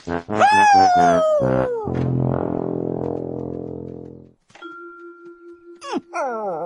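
A dog, Pluto, whines in a series of high, wavering whimpers, then lets out a long, low, rough groan, with a steady tone sounding before more whimpering at the end.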